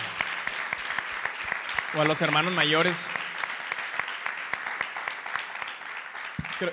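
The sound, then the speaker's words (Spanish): Steady, dense audience applause for all the mothers fills the whole stretch, a continuous crackle of many hands clapping, while a man briefly speaks over it partway through. “¿Y por qué no le damos un fuerte aplauso a todas las mamás que, que han tenido que salir?”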